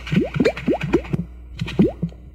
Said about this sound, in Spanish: esto, que, estamos, escuchando son es el sonido del tronco. A ver, ahí está el tronco flotando.